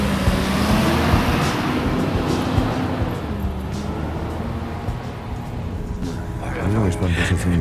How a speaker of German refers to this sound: Anschließend rollte der Bus mit knirschenden Reifen vom Parkplatz.